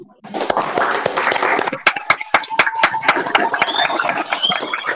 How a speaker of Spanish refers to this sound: Yo les voy a pedir que abran sus micrófonos un segundo para darle un aplauso a este consejo de una ciudadanía activa que ha logrado este proyecto histórico.